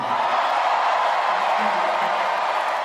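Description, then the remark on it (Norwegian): A large crowd at a Donald Trump election rally roars and cheers in a steady, dense wash of noise, loud and sustained throughout without letting up, many voices blending into one continuous swell. “Bare dere kommer dere ut for å stemme, sier Donald Trump til den jublende folkemengden han har foran seg.”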